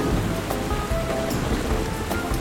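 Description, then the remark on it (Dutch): Steady rain pours down, a dense continuous patter of drops hitting a surface, fairly loud, with no voices. “Of het nou regent.”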